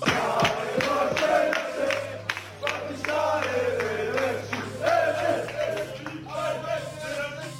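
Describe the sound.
Sparta fans celebrating a league title at a petrol station near Brno, during a night trip to Prague, shout and chant together in loud, rhythmic bursts. Voices overlap with sharp accented claps or stomps while a steady low hum runs underneath.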